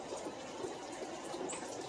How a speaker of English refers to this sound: Well, it's a rainy day in Jacksonville, Florida. It's just lightened up some. Do you hear that? Oh, that's beautiful.